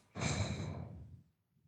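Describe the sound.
A person makes a single exaggerated mock snoring noise as a joke, a breathy rasp lasting about a second before fading into quiet.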